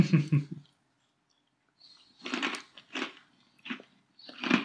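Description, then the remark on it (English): Crunchy chewing of cookie dough cream, several uneven bursts of crackly bites with short quiet pauses between them, fairly loud, with no talking. “It's it's crunchy. The cream. It is crunchy.”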